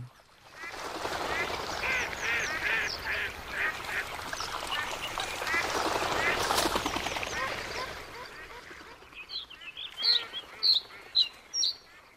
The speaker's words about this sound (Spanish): Vamos a escuchar un poquito más en primer plano ese sonido de la laguna en invierno para irnos a escuchar inmediatamente al escribano palustre.